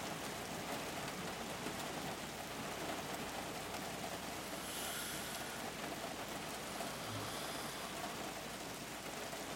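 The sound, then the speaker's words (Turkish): Steady rain pours down without letup, a dense, even hiss of drops spread across the whole stretch with no voices. “Yani yağmur yağıyor ya ondan dedi.”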